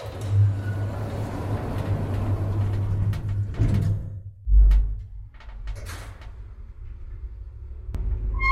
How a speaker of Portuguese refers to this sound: fechando a porta.